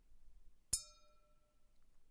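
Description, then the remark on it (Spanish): A single bright clink of glasses touching during a toast, ringing out with a clear tone that fades over about a second, crisp against a quiet background. “Salud. Salud.”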